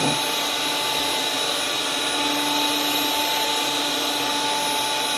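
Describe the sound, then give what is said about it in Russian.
A HOBOT 298 window cleaning robot runs on the outside of a window pane, with a steady, loud motor whine and suction hiss, with a few thin tonal lines holding constant throughout and no speech. “Робот для мойки окон HOBOT 2”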